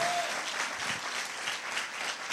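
An audience applauds with dense, steady clapping that fills the whole stretch, a loud continuous patter of many hands with no speech over it.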